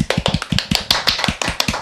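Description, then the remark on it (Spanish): A short burst of applause: quick, fairly loud hand claps in a brisk, slightly uneven rhythm, like one or two people clapping, lasting under two seconds with no talking over it. “Bravo, un aplauso, claro.”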